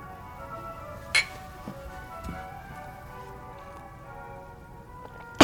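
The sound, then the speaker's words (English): Two bright, ringing glass clinks in a toast to a partnership, one early and one right at the end, sounding crisp over a steady low background hiss, with no one talking. “A toast to a wonderful partnership.”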